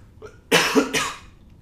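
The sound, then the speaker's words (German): A person coughs, two harsh bursts in quick succession after a faint breathy intake, then quiet. No speech. “Ich muss kurz husten, das könnte für die ZuhörerInnen kurz nervig werden.”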